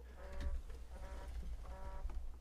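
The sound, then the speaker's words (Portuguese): An Amazfit smartwatch vibrates against a surface with an incoming call, giving three short buzzing pulses in a steady rhythm over a low rumble, fairly quiet. “que é isso que tá vibrando aqui? Você tá ouvindo isso aí?”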